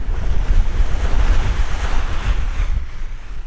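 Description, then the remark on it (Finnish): Steady roar of wind and breaking surf on windy seaside rocks off Pori, loud, with heavy low-end rumble from wind buffeting the microphone and a broad hiss of water throughout, no voices. “opastaa minua oikeaan asentoon Porin edustalla tuulisilla rantakallioilla.”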